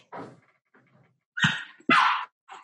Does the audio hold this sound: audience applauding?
no